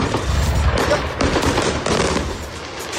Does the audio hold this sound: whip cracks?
no